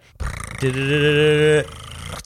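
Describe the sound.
A voice imitates a drum roll with a loud, rolling trilled buzz. It holds steady for about a second, framed by softer rumbling before and after.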